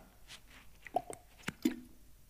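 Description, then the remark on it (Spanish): Someone takes a sip of water: a few quiet, wet mouth clicks and a soft gulp or two, spaced irregularly, with no talking. “¿Escucharon mi agua?”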